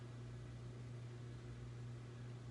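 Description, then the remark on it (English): A dishwasher runs through a load of dishes with a steady, even rush like falling water over a low, constant motor hum, holding at the same moderate level throughout with no voices. “Well, Claudine, let me explain this dishwasher.”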